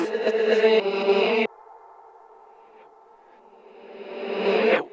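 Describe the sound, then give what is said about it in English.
Reversed, heavily reverberant samples taken from a musician's earlier solo EP, heard in the intro of a track: a dense wash that cuts off abruptly, a lingering hum, then a slow swell rising to a loud peak before stopping suddenly. No voices. “So there's clearly some I reverse the files, uh, the samples. There's a lot of reverb on them.”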